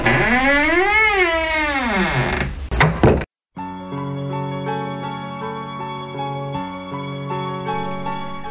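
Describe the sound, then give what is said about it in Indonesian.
A door shuts with a solid thunk after a wavering, rising-and-falling tone; a brief silence follows, then steady music begins. “Ayu menutup pintu.”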